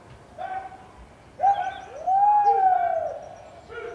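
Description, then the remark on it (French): Far-off herders shout to drive sheep on a huge farm in Tierra del Fuego, southern Argentina, gathering thousands of sheep toward the central farm for shearing: a few long, drawn-out tonal calls that rise and fall, the longest held in the middle, over a quiet open-air background. “Et on entend au loin des, gens qui font peur aux moutons.”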